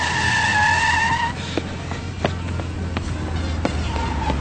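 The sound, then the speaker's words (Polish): A car's tires squeal loudly for about a second, then the engine keeps rumbling steadily as it pulls away, with a few sharp clicks and knocks scattered through. “Das ist doch das Auto von Philipp.”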